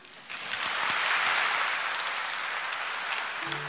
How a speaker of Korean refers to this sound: 박수로 한번